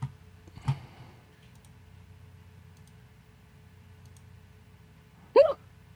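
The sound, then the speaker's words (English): Two abrupt hiccups, a short one early and a louder, sharper one near the end, separated by a low steady hum with no talking. “Sorry for the hiccup sound.”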